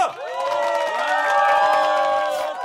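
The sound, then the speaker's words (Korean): A crowd of wedding guests cheers loudly and steadily after the groom's vow to love the bride, high excited voices and whoops blending into one sustained roar that holds for the whole moment without any single clear word. “아 이게 처음엔 좀 웃겼는데 진짜 진심이 묻어나서 그런가 환호성이 끊이질 않더라고요.”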